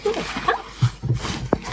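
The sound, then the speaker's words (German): A small dog gives a few short, high whines and yips, moderately loud, with a quick sharp yelp near the end and faint murmuring in the background. “Also der Hund kann sich drehen”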